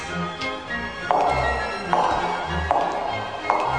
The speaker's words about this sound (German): Da hämmerte in wildem Staccato ein Schuh Du wilder, wilder Schuh, dachte sich der Asphalt.